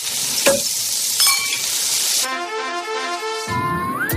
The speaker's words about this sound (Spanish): van a un asador y les ponen un chuletón que suena así.